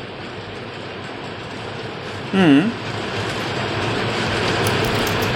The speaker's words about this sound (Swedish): Och nu verkar det regna rätt bra hos dig